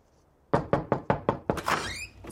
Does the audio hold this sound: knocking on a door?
yes